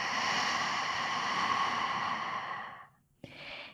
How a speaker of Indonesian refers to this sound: Ambil nafas panjang dari hidung. Buang nafas dari mulutnya.